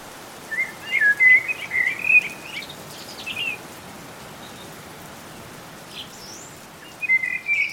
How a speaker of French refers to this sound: le chant des oiseaux à l'aube